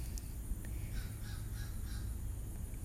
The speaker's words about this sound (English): Like all this nature and like the crows cawing and stuff and the bugs doing their thing.